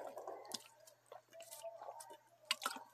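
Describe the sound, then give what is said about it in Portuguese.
Someone drinks water from a bottle, with soft wet gulps, swallows and sloshing liquid spread across a few seconds, ending in a sharper little splash or clink. “Deixa eu beber minha água.”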